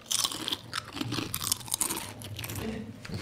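Loud crunching of potato chips being chewed, with a rapid, irregular series of crisp bursts continuing throughout, and no talking.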